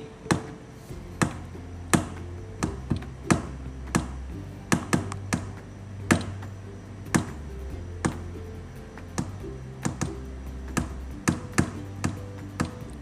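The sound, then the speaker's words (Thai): Sharp taps mimic the irregular heartbeat of a person with arrhythmia, coming in uneven clusters and gaps, some quick pairs and triplets, others spaced apart, over a low steady hum with no talking. “คนไมเต้นเป็นอย่างนี้ใช่ไหมคือคนปกติเต้นอย่างนี้ ใช่ไหม แต่บางคนอะที่หัวใจเต้นผิดจังหวะเขาจะเต้นแบบนี้”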